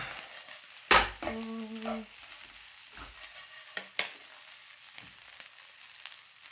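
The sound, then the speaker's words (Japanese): Steady hissing sizzle of fried rice in a frying pan, with sharp metallic clanks and scraping as it is stirred, plus a brief ringing tone early on; no one speaks. “チャーハンを作りましょう”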